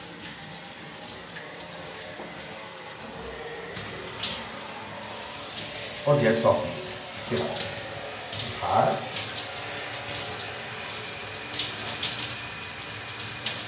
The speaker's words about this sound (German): Wenn ihr mich gedämpfter hört, dann muss ich gerade auch mit der Hand mich waschen.